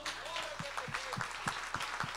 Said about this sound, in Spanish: Si le vas a dar un aplauso,